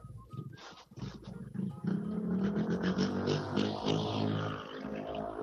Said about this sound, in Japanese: バイクのエンジン音が聞こえるでしょうか。ちょうど時間帯的にはあと今すごい風が強いですね。マイクのあの風防って言って、スポンジの風よけをつけてはいるんですけども、もしかしたら風の音もマイクに乗っているかもしれません。